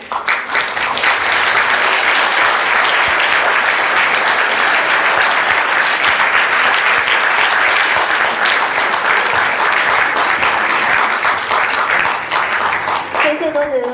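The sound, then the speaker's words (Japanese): Sustained applause from a large audience welcoming a lecturer as they enter, a dense, steady wash of many hands clapping at full volume for the whole stretch, ending with a brief trailing sound at the close. “それでは先生にご入場いただきます皆様拍手でお迎えください”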